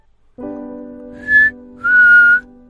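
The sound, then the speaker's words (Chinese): A simple two-note mouth whistle: a short higher note, then a longer, slightly lower one, both clear and steady, sounding over a continuous low droning tone. “那哨音不大，也没花样，只是简单的两个音。”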